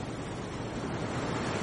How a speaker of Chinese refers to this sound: 海浪浸湿了我洁白的衣袂。